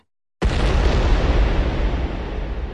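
A sudden loud explosion bursts out of silence, then a heavy, roaring rumble sustains without fading much: a cauldron of heated rock blowing apart in the hands of stone trolls at Helgenæs. No voices are heard.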